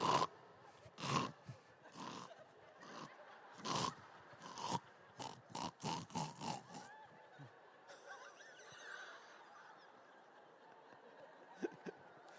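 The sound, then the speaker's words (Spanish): A voice imitates snoring with a quick run of loud, raspy snorting bursts, a dozen or so in uneven rhythm, before it trails off into quiet with a couple of faint clicks. “Y ya cuando ya es profundo el ronquido, ya se mete.”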